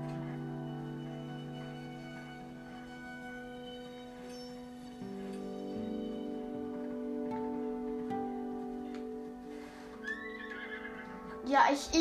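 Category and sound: animal, horse neighing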